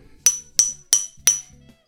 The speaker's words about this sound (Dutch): Ik tik tegen het flesje aan.